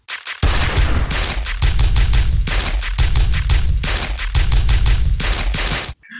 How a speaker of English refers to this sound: And the thing I found out about the song for the drums it's a it's a machine gun firing, a nine millimeter firing, and a bayonet stabbing somebody. That's what they use for the beat in this song.